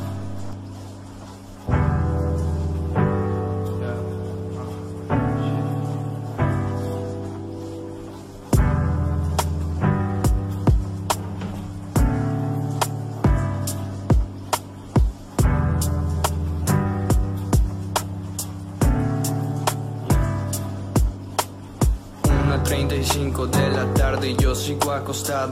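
A song's instrumental intro plays with no singing: full sustained chords shift every few seconds, punctuated by crisp percussive hits that grow busier toward the end, loud and up front.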